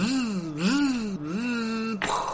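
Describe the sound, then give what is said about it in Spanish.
A person imitates a straining PlayStation console running Resident Evil 3 with their voice, making three drawn-out, groaning hums whose pitch dips and climbs like a machine struggling to shift gears, fairly loud. “Yo nomás lo escuchaba que quería meter como segunda y nomás escuchaba así.”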